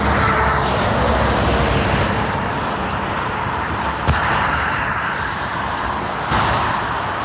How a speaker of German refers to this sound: Das sind so die Geräusche, die wir den ganzen Tag hören, wenn wir auf dem Seitenstreifen der Autobahn fahren. So hört sich an. Es ist laut und es ist nicht ungefährlich.